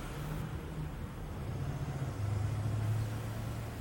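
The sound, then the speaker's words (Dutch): A low, heavy engine rumble steadily approaches and grows louder as military trucks carrying soldiers drive up onto a street, with a droning hum throughout and no voices. “De soldaten springen uit de vrachtwagens en blijven op straat staan, hun wapens op de gevangenen gericht.”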